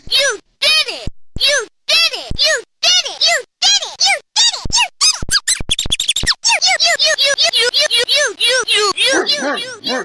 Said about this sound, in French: C'est un jouet d'enfant, le sac à dos parlant de Dora l'exploratrice, qu'un bidouilleur astucieux a bricolé pour en extraire ses sons.